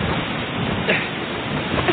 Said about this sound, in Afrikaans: Slegte weer, né? Nee. Hoe lank gaan die wind so waar?